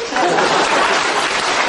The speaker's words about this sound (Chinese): 好，那给你掌声鼓励，请回。